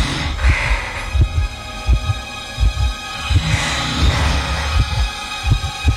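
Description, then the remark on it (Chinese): A loud, pounding heartbeat thumps in steady, deep double pulses, roughly one beat every second, over a faint constant hum and hiss with no voices. “他的心脏砰砰地跳着，心跳声已经大到了可以压制住呼噜的声音。”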